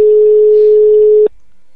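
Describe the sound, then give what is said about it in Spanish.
A loud, steady telephone tone sounds once for just over a second on an outgoing call from the radio station Cachis y Flamenco Radio to a member of a Racing supporters' club. It is a single unbroken electronic hum that then cuts off abruptly into silence. No one speaks. “A ver si nos coge el teléfono.”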